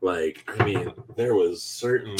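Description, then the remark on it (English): A cat, Charlie Tuna, rattles and knocks a pantry door in a few short bursts, partly buried under a person talking continuously. “so that's, that's my cat, Charlie Tuna, agree, agreeing with me that that Zitali was like very aggressive while he's trying to show his own aggression on my pantry, pantry.”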